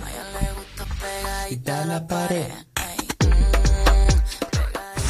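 A pop song plays: sustained synth chords and a gliding sung melody, then a heavy bass beat kicks in about halfway with punchy rhythmic hits, loud and full throughout.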